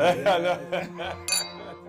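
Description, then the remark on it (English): A bright glass clink rings out once, crisp, as glasses are clinked in a toast, while several voices overlap in cheerful chatter around it. “Cheers, cheers to that.”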